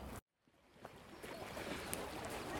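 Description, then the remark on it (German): A small brook flowing through the Allerhop-Park, a large playground, in fine weather: a continuous rushing and gurgling water sound that swells in after a brief moment of silence and stays fairly even throughout. “hier fließt so ein kleiner Bachlauf durch.”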